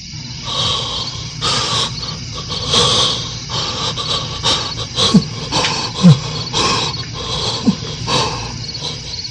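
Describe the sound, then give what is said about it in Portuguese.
Heavy, labored, agonizing breathing, a steady series of rasping, snorting breaths with occasional harsh catches, rising and falling in an uneven rhythm with no talking. “A ausência de luz, o ruído da respiração agonizante e o pavoroso silêncio fazem Flávia recuar buscando socorro junto à experiência da serva Ana”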